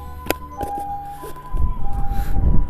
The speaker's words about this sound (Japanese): わ、救急車来た。